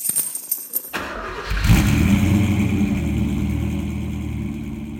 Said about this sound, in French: une voiture fonctionnelle mais que j'adore parce que elle est un peu pétée de partout